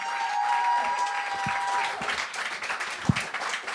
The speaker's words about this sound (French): On les applaudit.